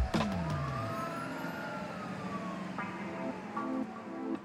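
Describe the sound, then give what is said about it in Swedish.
An ambulance siren wails, its pitch gliding and then switching into stepped two-tone blasts over a steady traffic rumble, with no one talking. “Trots det stannar ambulansen kvar länge på platsen och när de ska föra Diana till ett sjukhus”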